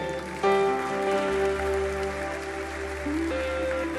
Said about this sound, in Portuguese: Aplausos o Senhor pela vida dela, querido, viu?